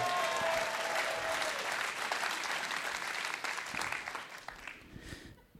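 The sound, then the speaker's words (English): An audience on the show Livewire applauds the house band, a band, with dense, steady clapping that holds strong for several seconds, then gradually thins and fades out near the end; a few faint voices or whistles mix in early. “Right, let's hear for the house band, ….”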